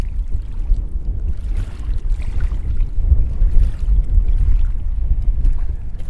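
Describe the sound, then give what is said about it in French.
Wind gusts roar steadily across a sailing boat as the wind picks up on the way back from an island, a heavy rumble with water sloshing faintly underneath. No one speaks. “Le vent s'est levé, c'est l'heure de raccompagner nos amis canadiens à bon port.”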